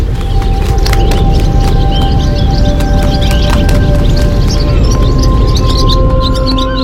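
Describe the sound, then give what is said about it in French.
Swallows chirp in quick, scattered twitters throughout, bright and fairly busy, set against a steady, loud wash of outdoor rumble with a few faint sustained tones running underneath. “Imagine-toi voler avec les hirondelles.”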